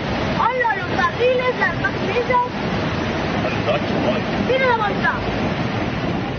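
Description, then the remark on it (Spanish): Rushing floodwater from an unusual storm in Toledo and Madrid roars steadily and loudly throughout, a dense continuous churn, with faint voices calling out briefly over the torrent. “Eso hoy, porque hace menos de un mes el sonido no era el de las chicharras, sino el de los torrentes de agua.”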